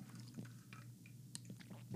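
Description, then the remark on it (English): A quiet swig of water: soft wet gulping and a few small clicks of the mouth and throat over a steady low hum, with no talking. “And I got a swig of water.”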